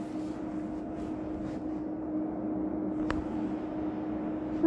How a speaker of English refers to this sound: Also, I'm sorry for the humming in the background. That's my new air conditioner. Um, still kind of loud.